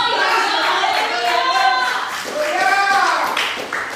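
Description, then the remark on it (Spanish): An audience claps steadily for several seconds in worship, applauding the Lord, a dense wash of hand claps mixed with raised voices calling out and singing over it. “Demos aplausos al Señor.”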